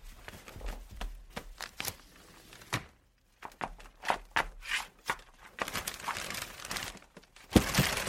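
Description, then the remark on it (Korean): Crinkling and rustling of a large blue plastic kimjang bag, its opening tightly twisted shut, being handled in a veranda storage room to get out a pink suitcase inside it, with bursts of crackling rising and falling over several seconds, fairly loud, and a few dull thuds at the end. “창고에는 파란색 김장봉투 대자에 들어있는 분홍색 캐리어가 있었다. 엄마는 비닐 입구를 몇 번이나 돌려서 꽁꽁 묶어놨다.”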